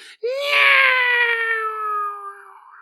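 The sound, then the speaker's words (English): A voice imitates a cat's eerie wail: one loud, drawn-out, nasal yowl lasting a couple of seconds, holding a fairly high pitch that sags slightly before trailing off. “And Howard looks over at his buddies who came through the door and he looks back at the cat and it's so close and it's going”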